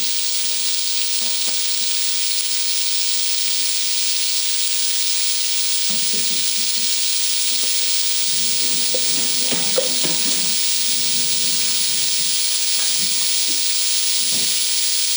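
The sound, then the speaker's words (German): Steady sizzling of sauce in a hot frying pan as a professional chef swirls the pan, with a constant bright hiss and occasional low scraping and sloshing. No one speaks. “Wow, wenn ein Profi Profikoch die Pfanne schwenkt.”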